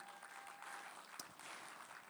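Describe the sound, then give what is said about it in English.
A crowd claps steadily for about two seconds, a dense, even, soft patter of many hands with no one speaking over it, applauding the Renew crew. “Let's give the Renew crew a round of applause.”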